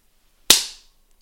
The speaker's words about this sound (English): The robot slaps the son.